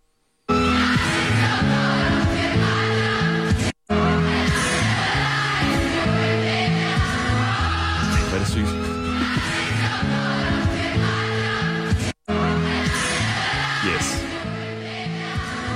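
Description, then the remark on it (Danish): People in a street sing from their balconies and windows together in a loud, steady chorus of overlapping voices, with two abrupt momentary cutouts, one early and one near the end. “en gade, hvor folk står og synger ud af deres altaner og vinduer”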